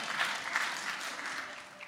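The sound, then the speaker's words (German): Steady audience applause, a dense wash of many hands clapping at once, sustained and fairly loud throughout with no voices standing out, given in response to a call for applause from Gelsenkirchen (Schalke) fans. “So, wo ist der Applaus in Gelsenkirchen?”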